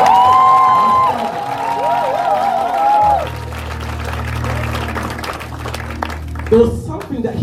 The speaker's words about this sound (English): So I want us, before we start, I want us to give a round of applause. Just celebrate for a moment.